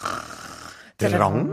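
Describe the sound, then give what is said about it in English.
A person imitates a snore with one raspy, breathy drone lasting just under a second, illustrating the Korean sound word for snoring. After a brief silence, someone laughs and starts talking. “Snoring. And uh, that's the sound of snoring.”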